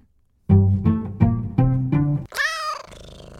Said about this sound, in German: Gesundheit.